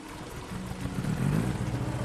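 The engine of a canopied motorcycle riding along Chengui Road in Guiyu town, Chaoyang district, Shantou, Guangdong, China, on an early morning in light drizzle, drones steadily, its low, buzzing hum growing slightly louder and rougher partway through, with a faint hiss of traffic noise behind it and no voices.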